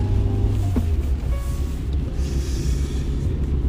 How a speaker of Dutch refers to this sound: hij reageert meteen, deze auto. Als je gas geeft, dan ben je meteen aan het gassen.